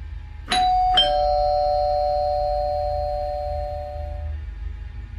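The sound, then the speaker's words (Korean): The electronic doorbell of a large mansion sounds a two-tone ding-dong, two clear struck chimes half a second apart, their ringing tones sustaining and slowly fading over several seconds above a low background hum. “난 살짝 긴장하며 초인종을 눌렀다.”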